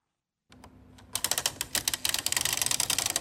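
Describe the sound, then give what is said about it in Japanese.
A hole-punching machine hums briefly after a short silence, then settles into a fast, steady run of sharp mechanical clacks, fairly loud, with no voices. “穴あけの機械穴あけを使用している音です”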